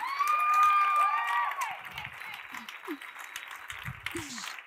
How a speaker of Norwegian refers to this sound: Klappe for de sterke guttene her, da.